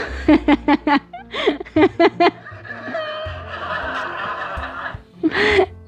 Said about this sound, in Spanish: Y sí, escucharon risas falsas y yo estoy pero emocionadísima y no, no, no crean que yo conté ese chiste o que se me salió ese chiste nada más para apretarle.